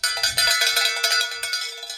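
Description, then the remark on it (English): A cowbell rings repeatedly in quick, uneven strikes, its bright metallic clang sustaining loudly across two seconds with no voices present. “Apparently, people outside that window think that's the dinner bell because they're all eating our food.”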